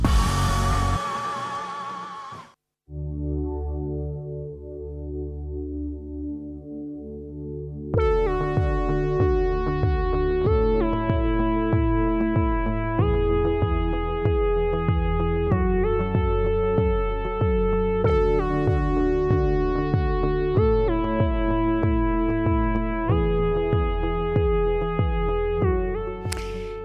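A pop song plays steadily without any talking. It opens with a short noisy burst and soft sustained tones, then a fuller arrangement comes in with a regular rhythmic pulse.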